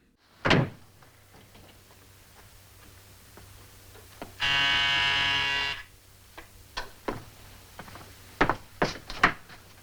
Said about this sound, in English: Remember, the first time the door closed, it was immediately followed by the phone ringing. This time, it's immediately followed by the doorbell ringing.